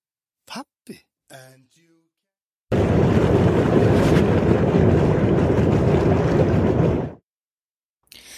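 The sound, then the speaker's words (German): A thermal hot spring bubbles and hisses loudly and steadily for about four seconds, a dense churning roar, after a few brief voice sounds. “Ja, was ihr da gehört, ist nicht der Wind, wo um mein Mikrofon umbläst, sondern eine von diesen ähm, thermischen Quellen, wo am blubbern ist.”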